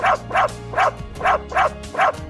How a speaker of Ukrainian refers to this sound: Схоже, щось трапилося. Ти помітив, як довго гавчить пес, наче кличе на допомогу?